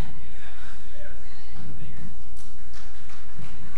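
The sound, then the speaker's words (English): Scattered, rhythmic hand clapping from a crowd, moderately loud, mixed with sustained musical tones and some voices. “Are you clapping for him or your mother in law?”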